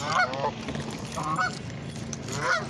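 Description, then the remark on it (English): Ducks call out in agitated, squawking bursts, three loud flurries spaced across the moment, over a steady low rumble of background noise with no one talking. “My my ducks is trying to tell me something.”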